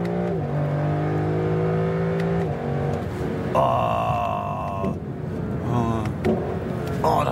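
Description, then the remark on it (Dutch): The V8 engine of a Lexus LC 500 convertible revs up and down in strong, rising and falling sweeps, its deep harmonic roar climbing sharply around the middle before settling, with a brief exclaimed voice over it. “Met een V8. En dit is nog een Lexus ook.”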